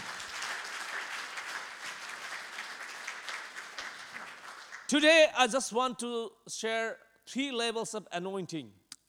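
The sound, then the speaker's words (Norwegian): A church audience gives a clapping offering to the Lord, clapping steadily in a dense, even wash of applause for about five seconds; it then stops abruptly and a single voice begins speaking. “La oss gi et klappoffer til Herren.”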